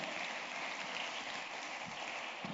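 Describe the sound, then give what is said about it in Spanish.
A crowd applauds steadily, a dense, even wash of clapping from many hands that holds at the same level throughout with no voices on top. “Todos los que estamos acá, si le van un aplauso, déselo al Señor.”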